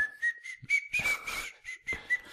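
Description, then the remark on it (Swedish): A bright, catchy whistled melody with short bouncy notes over a rhythmic beat with thumping percussion, loud, no talking. “De som har eh, en, lite catchy vissling i sin”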